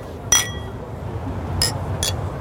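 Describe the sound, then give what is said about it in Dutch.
Glasses clink together in a toast, three bright chimes: one ringing clink, then two quicker taps close together, over a low murmur of background noise. “Cheers, jongens. Ja, proost, proost.”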